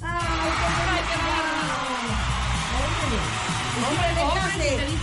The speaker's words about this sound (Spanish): ¡Bravo! Un aplauso, ¿cómo no?